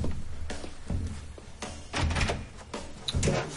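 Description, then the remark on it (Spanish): The door of a boarding house is opened: a series of wooden clicks and knocks from the latch and handle, followed by a heavier rattling thump as it swings, with no voices. “Alba abre la puerta y descubre a la dueña de la pensión.”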